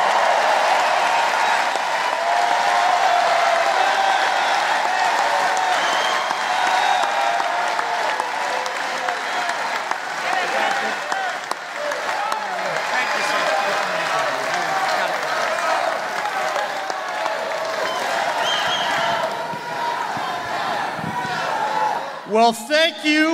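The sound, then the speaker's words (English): A large crowd at a political rally in West Virginia applauds and cheers loudly and continuously, welcoming President Donald Trump, a dense wash of clapping and shouting voices that holds steady for over twenty seconds before tapering slightly at the end. “Thanks to this amazing crowd for this very warm welcome.”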